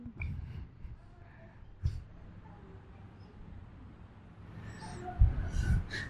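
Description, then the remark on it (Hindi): A dog whimpers and cries in thin, high-pitched, siren-like whines, several drawn-out calls rising and falling over a low rumble of background noise, not loud. “जैसे इसने रोना चालू किया मैं सोचा इधर एक्सीडेंट हुआ तो पुलिस की गाड़ी आई तो पुलिस की गाड़ी का सायरन बजा एकदम से शुरुआत इसकी एकदम से सायरन वाली हुई”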